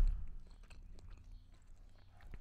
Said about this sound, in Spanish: Estoy comiendo, perdón.